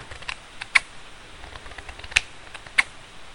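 Scissors snip through the middle of an unfolded paper napkin while making a napkin rose, in a few crisp clicks, three sharper cuts spaced irregularly among fainter rustles, with no voices.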